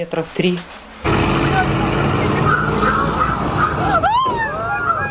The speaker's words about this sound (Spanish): Incrédulos observan cómo un tanque ruso choca intencionalmente a un auto que transitaba por una desolada calle. Milagrosamente sobrevivió.